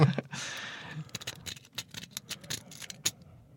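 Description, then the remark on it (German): Quick metallic scraping and clicking, a brief rasping stroke followed by a rapid series of sharp ticks as a Bogota lock pick is raked over the pins of a lightly tensioned lock, with no talking. “Ich habe jetzt hier leicht gespannt und habe tatsächlich mit dem Bogota”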